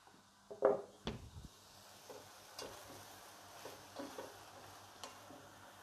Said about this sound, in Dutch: Nou, dus dit kan even lekker bakken. Ik doe het weer zonder eh, dat ik de afzuiging aan heb staan. dus het ruikt hier dadelijk weer heerlijk.